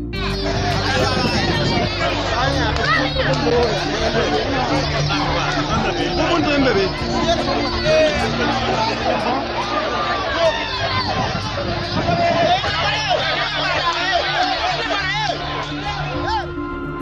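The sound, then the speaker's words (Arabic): A large crowd of demonstrators in Burkina Faso protesting to block a French military convoy travelling from Côte d'Ivoire towards Niger fills the air with dense, continuous hubbub, overlapping voices chattering and calling out at a steady loud level, with occasional shouts rising above the din. “خلال مشاركة هذا الطفل في مظاهرة لمنع مرور قافلة عسكرية فرنسية قادمة من كوديفوار باتجاه النيجر”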